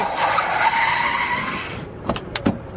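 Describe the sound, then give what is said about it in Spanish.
A taxi skids hard, its tires squealing loudly for nearly two seconds before the screech cuts off, followed by a few sharp thumps and knocks. “Taxi.”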